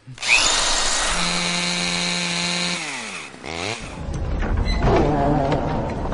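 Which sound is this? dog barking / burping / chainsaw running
chainsaw running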